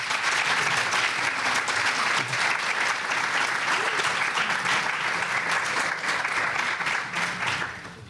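audience applause

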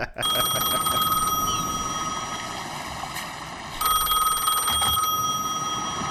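cell phone ringing

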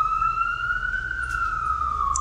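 police car siren passing

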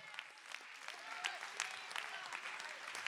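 audience clapping hands

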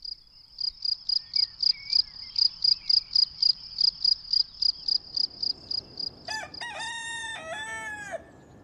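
rooster crowing

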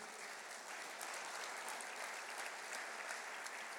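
audience applauding

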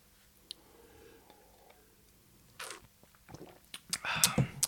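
smacking and chewing

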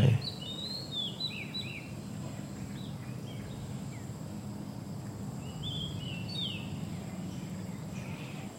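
birds chirping outdoors

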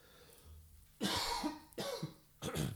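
coughing

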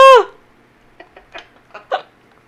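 hiccups

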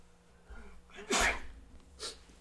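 sneeze

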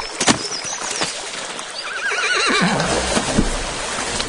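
horse neighing

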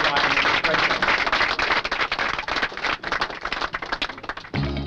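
camera shutters clicking

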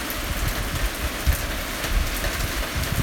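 rain falling outside

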